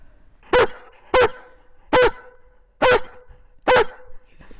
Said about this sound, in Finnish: Moro on kyllä niin komea, nyt kun saisi vielä komean haukahduksen tähän loppuun.